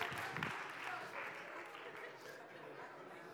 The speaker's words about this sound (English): How about a hand, round of applause for some of you volunteers? Nice.